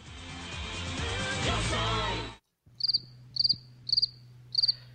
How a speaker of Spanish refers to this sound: Los grillos que acabamos de poner en la edición dictaminan lo que acaba de hacer el señor Thornberry.